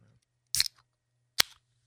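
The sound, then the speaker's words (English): A can of Coca-Cola raspberry spiced Coke cracks open: a sharp metallic snap with a quick hiss of escaping fizz, then another crisp click a moment later. No voices. “But speaking of, I'm going to go ahead and crack this bad boy open and try it right here on the air and let you know what I think.”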